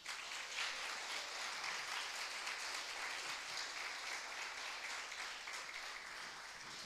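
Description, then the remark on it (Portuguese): An audience applauds God in a dense, continuous wash of clapping that holds steady and loud for about seven seconds, easing only slightly at the very end, with no voices standing out. “Você pode aplaudir Ele mais forte?”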